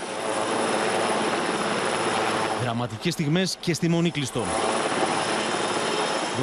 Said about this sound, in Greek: Από πάνω πετάει ένα σούπερ πούμα για να απεγκλωβίσει και τους τελευταίους που βρίσκονται εδώ σε περίπτωση που η φωτιά πλησιάσει κι άλλο απειλητικά προς τη μονή.